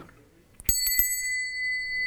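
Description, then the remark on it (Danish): A small bell, used to represent sound, rings with a quick flurry of three bright strikes, then a clear metallic tone lingers and slowly fades. Fairly loud, with no talking. “jeg har sådan en lille klokke her til at repræsentere lyd.”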